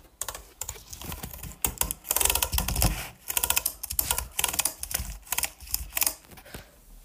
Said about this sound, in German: Oh, mein Finger tut langsam weh von diesen Tastaturen.